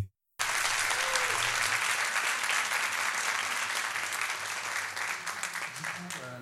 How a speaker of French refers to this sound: Est-ce qu'on pourrait avoir de nouveaux applaudissements, s'il vous plaît, pour nos invités